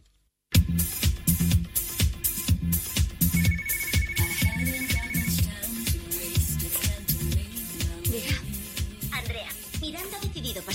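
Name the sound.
telephone ringing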